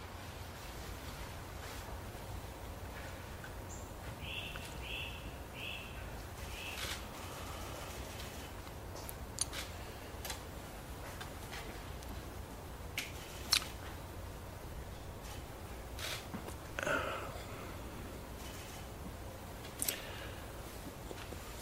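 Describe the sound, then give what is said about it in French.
A few faint bird chirps come in a quick series early on, then sharp, isolated camera shutter clicks snap every few seconds over a low, steady background hiss. “On entend les oiseaux derrière les flashs des caméras.”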